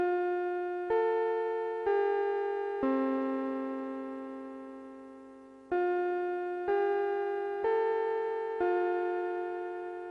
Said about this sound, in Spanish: Y según escucharon la campana ya, vamos, es hora de clases, vamos a hablar de las escuelas japonesas.